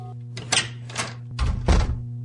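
Four heavy knocks on a door, fairly loud, spaced about half a second apart, with the last two landing deeper and harder. No one speaks.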